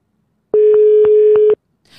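A phone line's ringback tone: one steady, loud electronic beep about a second long, then quiet while the call goes unanswered. No voices are heard.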